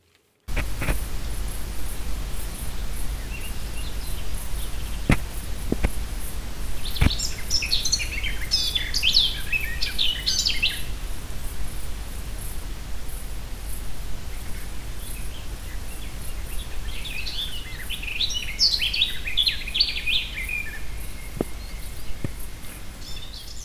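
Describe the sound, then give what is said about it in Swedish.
Two bursts of a garden warbler's rapid, warbling song, each lasting a few seconds, rise over a steady hiss of outdoor background noise, with a few faint clicks between phrases. “Känner vi igen den här fågeln? Ja. Det är? Det är en trädgårdssångare.”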